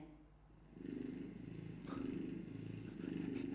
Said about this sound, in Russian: Алиса, включи мурчание кота. Включаю звук мурчания.